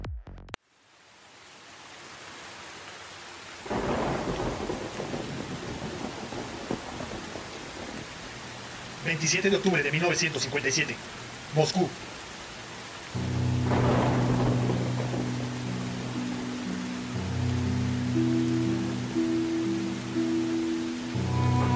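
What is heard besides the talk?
heavy rain with thunder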